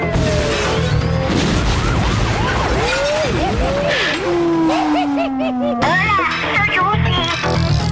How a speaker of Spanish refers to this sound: Jala el hito que cuelga de su espalda y desata la más poderosa explosión nuclear